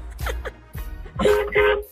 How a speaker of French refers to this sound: en tout cas, joli klaxon, mon cher Robin